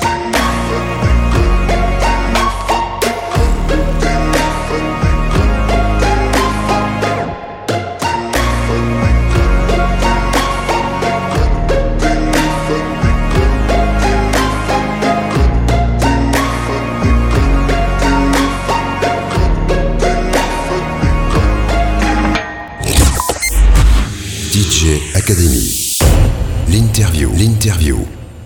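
A hip-hop style music track with rapped vocals over a steady, bass-heavy beat, loud and close, ending in a brief whooshing sweep and a few heavy thumps.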